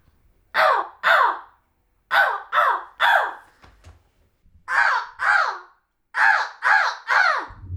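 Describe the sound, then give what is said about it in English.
A person imitates a crow, letting out ten loud, harsh caws grouped in quick bursts of two and three with short pauses between them. “I've heard your crow call.”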